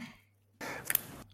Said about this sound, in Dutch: Hier was een hint voor nodig, eh, maar het was het dichtklappen van de Huawei Mate XS uit jouw video